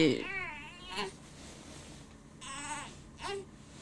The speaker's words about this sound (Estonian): laps teeb veits heli või? laps teeb heli